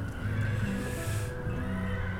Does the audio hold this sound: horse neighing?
yes